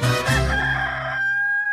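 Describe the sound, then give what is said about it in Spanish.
A rooster crows once, loud, its call rising and then stretching into a long, strained, wavering note before cutting off. “Oye, pues de repente te levantas muy tempranito cuando canta el gallo.”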